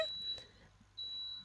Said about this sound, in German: Entschuldigung, ja, ich sehe gerade, das Pieps ist meine Spülmaschine. Ach, die Spülmaschine.